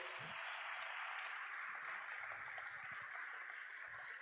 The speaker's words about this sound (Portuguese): Se você quer dar uma salva de palmas ao Senhor.